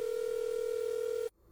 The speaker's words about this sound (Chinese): 等肖瑜离开之后，陈涛拿起座机，拨通了满东流的电话号码。